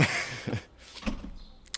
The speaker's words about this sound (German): Ja, wenn die Nachbarin zur Tür reingeht.